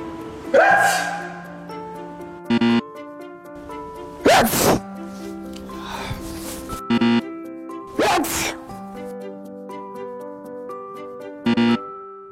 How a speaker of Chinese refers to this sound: 一个喷嚏的最高时速可以达到六十公里每小时，向周围的空气排放高达一百万个微粒。